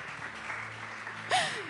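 An audience at a church service applauds with a steady, dense patter of clapping, then near the end the noise swells and a brief, falling whoop cuts over the clapping.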